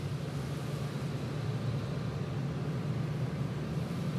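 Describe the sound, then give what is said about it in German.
Large rotating mop-like brushes in an automatic car wash tunnel scrub a car, making a steady, loud whirring rumble with a constant swishing wash of noise and a low mechanical hum throughout, no voices. “So, das waren die großen, sich drehenden Wischmöpse.”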